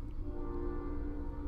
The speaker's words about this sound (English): and that is the train.